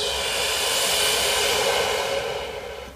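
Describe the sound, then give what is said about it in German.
A long, steady breath out, a broad airy hiss that holds for about two seconds and then slowly fades, with no talking. A deep exhalation during a guided breathing exercise. “Und wieder aus.”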